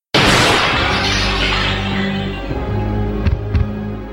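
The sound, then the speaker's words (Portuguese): A large glass tank bursts as a giant creature breaks violently through it, with a sudden, loud crash that gives way to a deep rumbling tail, with a couple of sharp debris impacts near the end. No one speaks. “Atravessando o tubo de forma violenta, a gigantesca criatura aterriça em solo firme, instantaneamente pronta para dilacerar o que quer que se mova em sua frente.”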